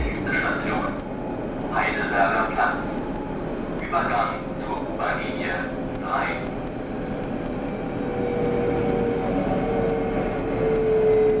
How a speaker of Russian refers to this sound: В Берлине тоже в подземке достаточно тихо. Вот как для сравнения звучит метро в столице Германии.